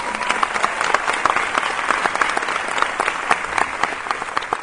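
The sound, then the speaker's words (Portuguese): More than 900 guests filling an auditorium give Malala Yousafzai a standing ovation, many hands clapping steadily and loudly throughout, with no speech over it. “A paquistanesa foi aplaudida de pé.”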